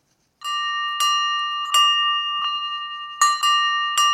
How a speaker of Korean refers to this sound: 네, 오늘 보물찾기 보물소리 종소리입니다.